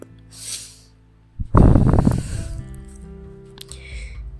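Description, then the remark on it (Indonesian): A deep breath: a soft, airy inhale, a short pause, then a louder, gusty exhale that fades into low, steady background hum. No talking. “Oke, okay, relax … nafas, take a breath”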